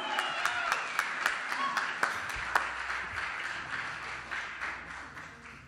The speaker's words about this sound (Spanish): Un aplauso para él. En la tuba.